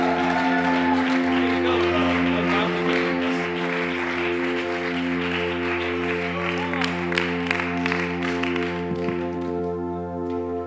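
Steady audience applause with scattered cheers, a dense crackle of many hands clapping for about ten seconds, over sustained low musical tones that hold throughout.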